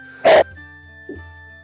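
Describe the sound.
One loud, harsh cough bursts out, then a much softer second cough follows about a second later, with nobody talking.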